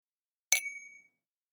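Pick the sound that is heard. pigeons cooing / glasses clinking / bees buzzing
glasses clinking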